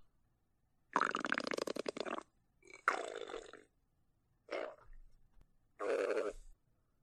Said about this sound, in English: It's now late evening, and … stomach started to make growling sounds.